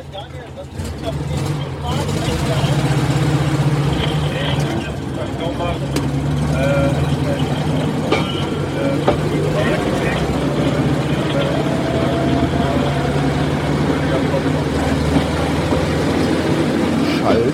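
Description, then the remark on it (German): A steady, rumbling engine drones as a small motorized rail draisine, built by the Frankfurt firm FKF to Bundesbahn specifications, rolls off a turntable, with low mechanical hum and occasional clanks; a person talks over the motor noise. “So, wir stehen jetzt auf der Drehscheibe, fahren raus”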